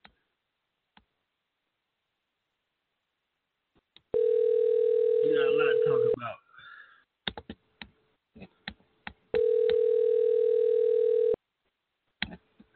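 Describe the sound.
A steady, loud telephone dial tone plays for about two seconds as a phone call is placed, broken by sharp clicks and brief talking, then the same tone returns for another two seconds, with scattered taps around it.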